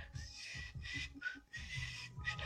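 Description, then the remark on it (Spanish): A voice imitates a crowd whistling, producing several breathy, hissing whistle-like bursts in quick succession, fairly loud, with low vocal rumble underneath. “todos empezaban a chiflar, no, pues se oía, se fuerte, ¿no?”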